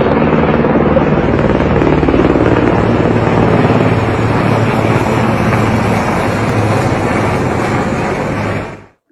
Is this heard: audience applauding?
no